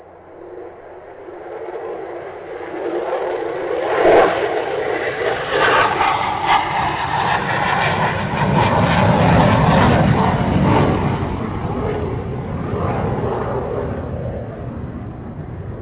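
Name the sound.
airplane taking off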